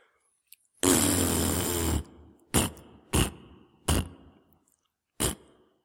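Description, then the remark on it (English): Someone blows a long, loud, raspy mouth fart lasting about a second, followed by four shorter, punchy imitation toots spaced out at an irregular rhythm, with no talking. “So, uh, in case you haven't figured it out by the uh, the flatulence uh, that was just coming over the airwaves.”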